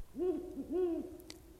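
A Ural owl hoots twice in quick succession, deep wavering calls, fairly loud, followed by a brief faint click, with no voices.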